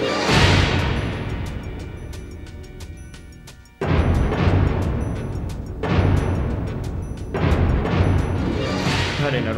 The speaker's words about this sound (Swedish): det här är bra actionmusik alltså. Eh, ja, verkligen. Det håller tempot uppe. Liksom. Det är Golden Goldeneye-soundet tillbaka igen.